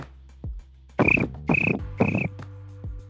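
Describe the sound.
A person imitates a cricket with three short, buzzy chirps in a steady rhythm, fairly loud, with a couple of soft low thumps around them and no talking.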